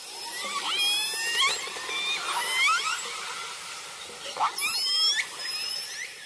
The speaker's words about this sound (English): And I can tell you that about 12 of us were on board and all of us were literally in tears listening in on the communication. I would call it a conversation between these killer whales.